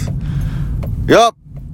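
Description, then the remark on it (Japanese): A steady low rumble of road and engine noise fills a moving car's cabin, with a brief voiced sound from a person breaking in near the end. “今日も車をね運転しながらあのねお送りしますこのラジオを撮るために車を運転してるんじゃないかなって思うぐらい、えー、車を運転しながら喋、えー、っております”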